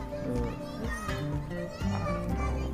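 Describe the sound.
Children's voices chatter and shout at play throughout, a lively overlapping jumble at moderate volume, mixed with adult conversation and a bit of background music.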